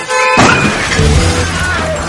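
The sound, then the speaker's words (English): A loud car crash effect hits suddenly: a sharp metallic smash and shattering impact, followed by a couple of seconds of rattling, scraping debris that slowly settles. No one speaks. “Seniors crashing into masses. Miss the brakes and hit their gases.”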